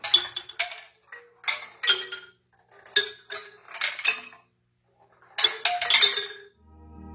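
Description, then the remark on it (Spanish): A shaken sonarimba, a bamboo tube with a sphere moving inside and both ends covered by two wooden pieces, rattles in bursts as the sphere strikes the wooden ends, giving bright, clinking wooden-metallic hits in uneven clusters with short pauses between shakes. “Cuando se agita, el objeto golpea en los extremos y produce este sonido.”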